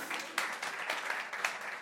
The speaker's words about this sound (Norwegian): Ja, vær så god, det er lov å klappe.